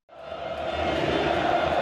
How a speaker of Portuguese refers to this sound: Olha, vamos subir o som da torcida do Vila. Isso é bonito demais. A torcida não para mais. E eu lembro que um olhou assim pro outro, todo mundo levantou, começamos, começou aquela a cantar e não parava. Foi 15 minutos sem parar, uma vibração